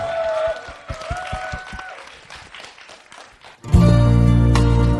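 An audience claps and cheers in a dense, steady wash of applause with a few voices rising above it. Near the end it is cut off by loud music with sustained instrumental tones.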